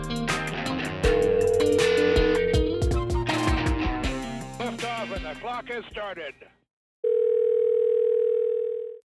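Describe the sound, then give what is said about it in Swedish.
A single steady telephone ringing tone sounds clearly for about two seconds after a brief silence, preceded by a busy jumble of musical, tonal sounds, as a call is placed to the Västergötland football association. “Karlsson ringer Karleby.”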